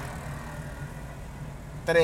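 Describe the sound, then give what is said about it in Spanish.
A motorcycle said to belong to phone thieves drones steadily at moderate volume as it passes, its low hum holding even throughout before a voice briefly cuts in at the very end. “Ya, pues ahí viene, la moto, ahí viene la moto. Ahí viene la moto. Está pasando en vivo, Mira.”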